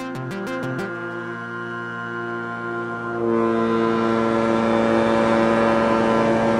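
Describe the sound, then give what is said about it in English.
An Inter-Island ferry engine drones with a deep, steady harmonic hum as the ferry pulls away from the dock in Ketchikan, bound for Prince of Wales. About halfway through it swells louder and rougher into a throbbing chug. No voices are heard. “As the Inter-Island ferry chugs away from the dock in Ketchikan, bound for Prince of Wales”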